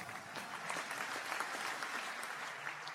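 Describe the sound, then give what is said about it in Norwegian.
A studio audience in a large studio applauds itself at the start of a debate: a dense wash of many hands clapping at even loudness throughout, with no voices standing out. “Gi dere selv en applaus, folkens!”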